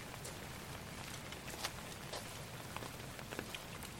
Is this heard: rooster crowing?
no